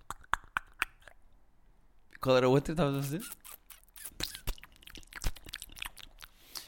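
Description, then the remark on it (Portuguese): Crisp crunching and chewing on a chocolate heart, a steady run of sharp little clicks and snaps throughout, with a brief spoken question cutting in partway. “Porque tu, até há mais ou menos uh, eh, 3 segundos, estavas a comer um coração de chocolate e a beber um café.”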